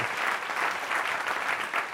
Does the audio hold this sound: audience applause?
yes